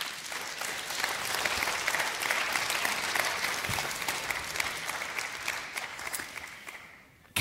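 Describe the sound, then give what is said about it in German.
A steady round of audience applause at Deutschlandfunk Kultur's Blue Sofa welcoming author Karl Markus Gauss, this year's winner of the Leipzig Book Prize for European Understanding; many hands clap in a dense, even patter for several seconds before tapering off near the end. “Sehr geehrte Damen und Herren, begrüßen Sie mit mir gemeinsam den diesjährigen Leipziger Buchpreisträger zur europäischen Verständigung, Karl Markus Gauss, auf dem blauen Sofa.”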